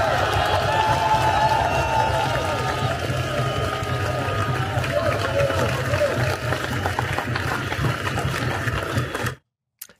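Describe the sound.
A large crowd at a rally cheers and claps loudly and continuously, a dense roar of voices and applause that fills the space for several seconds before cutting off abruptly.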